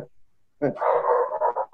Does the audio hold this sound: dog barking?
yes